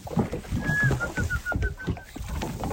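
A person whistles to call permit fish while fishing: one sliding high note that rises and holds, then a run of short, evenly repeated chirps at the same pitch, moderately loud over steady rumbling wind and water noise.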